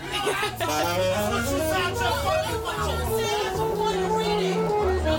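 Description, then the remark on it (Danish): A person standing in a metro plays a saxophone live, a steady, sustained melody with held notes over a constant murmur of crowd chatter, echoing. “I en, det er optaget live i en metro. Ja. Hvor der er en, der står og spiller saxofon.”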